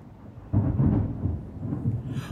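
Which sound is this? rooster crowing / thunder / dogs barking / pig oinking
thunder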